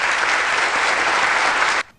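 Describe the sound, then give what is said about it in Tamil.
A burst of dense, steady clapping from a crowd fills nearly two seconds at full volume, then cuts off abruptly with no talking. “only one ஒரே ஒரு arrear வச்சு பாஸ் பண்ண நம்ம ரஃபிக் பிரதர் கைத்தட்டல்கள்”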